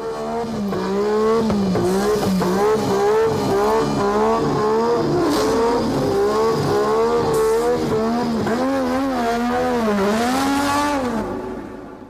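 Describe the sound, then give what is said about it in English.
A 1980s turbo-era Formula 1 race car engine revs hard, its pitch climbing and dropping repeatedly as it shifts through gears, loud and continuous with no talking. “which cars did you prefer the sort of turbo monsters of the sort of mid 80s or the smaller slightly more refined cars of the early 90s i think i mean the best era in in my opinion in history of f1 was probably the turbo era the cars were insane”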